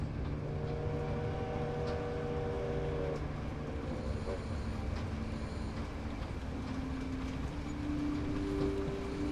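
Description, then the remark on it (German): A steady, continuous rumble of a train running through the night, with low droning hum and faint shifting mechanical tones; no voices. “In diesem Moment der vollkommenen Entspannung lässt du dich treiben, getragen von der sanften Kraft der Nacht bis du schließlich in einen erholsamen Schlaf gleitest, umgeben von der wohlig warmen Atmosphäre der Zugfahrt durch die Nacht.”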